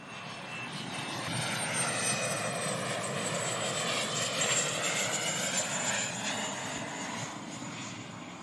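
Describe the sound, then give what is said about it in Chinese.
A steady, broad roar of an aircraft engine fills the whole stretch, a private jet slowly landing at Drake Bay airport in Central America toward evening at sunset, with a rushing hiss and faint shifting whine, swelling slightly mid-clip then easing. “一架私人飞机缓缓落入德雷克湾机场，机上一老一少随着舷窗注视着逐渐消失在海平面下的落日。”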